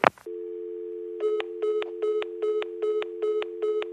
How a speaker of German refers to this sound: Kannst du bitte bei Minute 1345 einen Timer machen und ein Auflegsymbol äh, von mir reinmachen? so einfach so düt, düt, düt, düt.